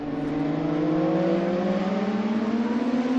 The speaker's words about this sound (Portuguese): O barulho das motas invadiu o Autódromo Internacional do Algarve nos treinos livres desta sexta-feira.